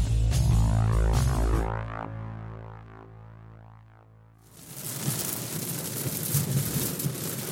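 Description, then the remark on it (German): A low, droning musical tone rings out and fades, then steady rain that has just begun after a dry day takes over, a dense, even patter of drops that continues to the end. “Ja, nachdem es den ganzen Tag nicht geregnet hat, obwohl für den ganzen Tag Regen angesagt war, hat es aber dann jetzt angefangen zu regnen.”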